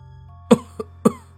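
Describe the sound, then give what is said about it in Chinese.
An elderly woman coughs harshly three times in quick, uneven succession, each cough a sharp, raspy burst over a low, steady background hum, with no talking. “姥姥刚讲了两句，就开始剧烈的咳嗽。”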